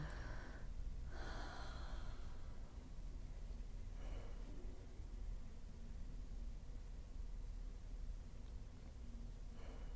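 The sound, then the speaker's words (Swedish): Soft, breathy exhales during a breathing exercise drift in against a steady low hiss: two close together at the start, another around the middle, and a faint one at the very end, with no talking. “precis vila i att andas ut.”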